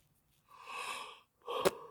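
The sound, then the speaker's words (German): A breathy yawn: a long drawn-in breath followed by a shorter airy exhale with a faint click, fairly quiet and with no talking. “Einfach nur gegähnt.”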